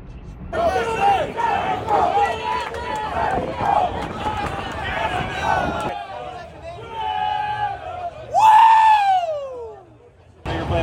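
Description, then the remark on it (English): A street crowd of fans at the USA versus Mexico World Cup of baseball, many covered in Mexico gear with painted faces, chants and cheers loudly, voices overlapping in rhythmic bursts, then settles into a murmuring hubbub before one sharp, rising-and-falling yell cuts through near the end. “It's so cool, all the different chants, cheers, and.”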